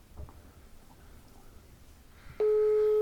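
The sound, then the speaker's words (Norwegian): A quiet stretch of faint line noise gives way to a sudden, loud, steady electronic telephone tone that holds unbroken through the last second, like the beep before a voicemail recording. “Dette er telefonsvareren til 4, 7 ja”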